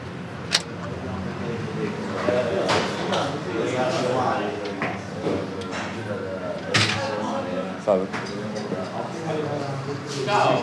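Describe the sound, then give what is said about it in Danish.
The door of a restaurant and micro bakery in Rome opens with a few sharp knocks and clatters as a person steps inside. Indistinct voices murmur in the background throughout. “Nu går jeg indenfor. Der står restaurant og micro bakery på døren.”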